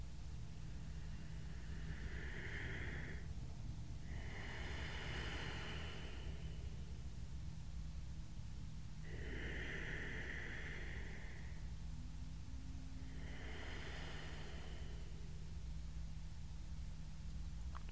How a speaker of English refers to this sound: Begin to elongate your breath cultivating an ujjayi breath if it comes to you, that ocean like sound as you let the air brush through your vocal cords, your esophagus, out through the nose, in through the nose.